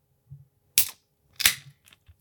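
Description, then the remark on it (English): An amber ale bottle is opened: two sharp pops, each trailing a brief hiss of escaping gas, then a few faint clicks amid quiet. “so this amber ale is an ideal beer for showing people that a darker brew can still be refreshing and balanced.”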